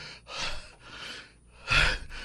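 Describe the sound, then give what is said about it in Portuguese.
A voice imitates the breathless panting of a man who has just arrived at a radio studio and cannot speak: several quick, loud, airy breaths in a rough rhythm, the last gasp strongest, with no words spoken. “ofegante, se acabando, aí fazendo assim com a mão, porque não podia falar naquela hora, não podia falar”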